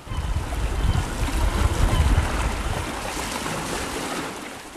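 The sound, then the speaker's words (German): Steady rush of sea water washing at the shore in Trieste, Italy, a broad continuous roar with heavier low surges in the first half that gradually ease toward the end; no voices. “Das habe ich gemacht und mich ins Auto gesetzt und bin an jenen Ort gefahren, der mich immer glücklich macht. Ans Meer.”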